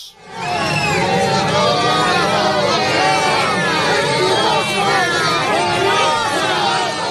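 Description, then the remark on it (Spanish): A large crowd at Hospital de la Paz in Madrid, Spain, roars with loud, sustained booing and jeering at the visiting Spanish prime minister during the pandemic, many overlapping voices forming a dense, continuous wall of noise that barely lets up from start to finish. “Primera visita a un centro hospitalario desde que comenzara la pandemia y fue recibido con fuertes abucheos.”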